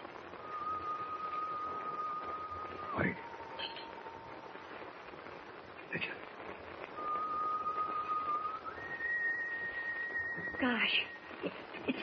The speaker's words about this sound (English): Whoever's whi- whistling is standing right outside on deck.